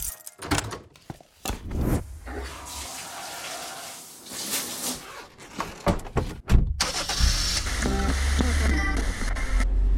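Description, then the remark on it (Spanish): A few sharp thunks and an engine turning over, then a car driving on Route 9 toward the Quebrada de Humahuaca settles into a steady road rumble with a constant low drone of tires and engine. “Ahora voy por la ruta 9, camino a la quebrada Humahuaca.”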